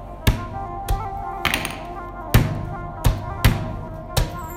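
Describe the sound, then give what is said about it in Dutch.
Rubber stamps thump onto paper in a quick, uneven series of about eight sharp taps, each a short dull knock with a crisp edge, with no voices, as an apartment rental is finalised and the key handed over. “Uiteindelijk worden er stempels op een papier gezet en wordt de sleutel overhandigd.”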